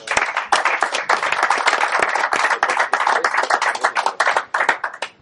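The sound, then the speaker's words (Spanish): Sustained applause from an audience at the end of a talk, many hands clapping densely and steadily for several seconds at a fairly loud level, with no talking over it. “Le damos un aplauso a Gregorio.”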